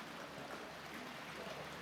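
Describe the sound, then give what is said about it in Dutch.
Steady rushing and splashing of water churned by a windmill's Archimedes screw turning 40 times a minute, scooping water up and tipping it into the neighbouring polder a metre higher, a continuous moderately loud wash with no clear pauses and no voices. “Dan maakt deze vijzel 40 omwentelingen per minuut. En dan schept hij dus hier beneden het water achter elkaar op, draait hij naar boven, gooit hij het in de andere polder, hiervoor.”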